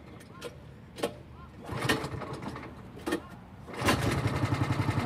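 A small go-kart engine is cranked in a few short bursts, then catches and keeps running with a rapid, rattling putter, fairly loud.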